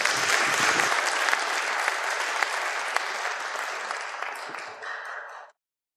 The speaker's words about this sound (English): Could we give everybody a round of applause who was brave enough?